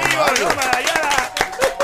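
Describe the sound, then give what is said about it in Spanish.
Applause from a group for a couple of pastors, sharp irregular claps rising and falling under excited voices and cheering that carry through the whole stretch. “¡Un aplauso para los pastores!”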